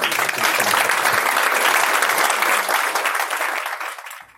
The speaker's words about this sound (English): Round of applause for our panel.